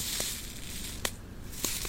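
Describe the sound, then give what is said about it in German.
Soft rustling of a tea bag being handled, with a few brief papery crinkles scattered over a quiet background hiss. No one speaks. “Das Rascheln eines Teebeutels, den er berührt.”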